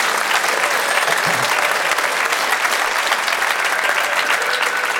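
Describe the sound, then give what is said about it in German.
Steady audience applause fills the whole stretch, a dense, continuous patter of many hands clapping at an even loudness with no voices standing out. “da wollte jemand klatschen, das ist immer erlaubt”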